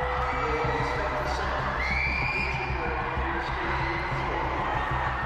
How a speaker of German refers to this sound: In der Konzerthalle bricht eine Massenpanik aus. Menschenmengen rennen raus aus der Arena, Richtung Bahnhof, schreien um Hilfe, schreien in Todesangst.